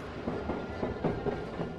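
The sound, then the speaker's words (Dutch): A train heading to Bergen op Zoom rumbles steadily along its rails, with a continuous low roar and faint, irregular clacks of wheels over track joints, without voices. “Ga dan mee naar Bergen op Zoom met de trein.”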